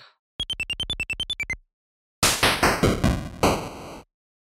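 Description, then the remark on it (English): A chiptune sound chip's noise channel: harsh, hissy static bursts pulsing in a quick stuttering run with shifting grit, preceded by a rapid string of about ten high, squeaky electronic beeps. “So a channel that can just do noise.”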